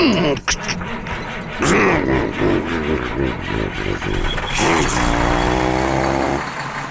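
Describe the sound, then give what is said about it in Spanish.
A Rastrojero pickup truck's engine cranks and catches as it sets off for San Clemente del Tuyú, then revs up and down in rough, rising surges before settling into a steady, throaty run. “No le molesta subir al rastrojero mientras vamos charlando, ¿no?”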